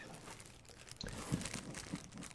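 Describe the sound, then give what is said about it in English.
Rustling and crinkling of a sheet of loose leaf paper, a list made with pictures from a Walmart catalog, being handled, with a few sharper crackles amid soft continuous handling noise, no voices present. “it looks like we have a piece of loose leaf paper, and Tammy wrote you a list using pictures from the Walmart catalog”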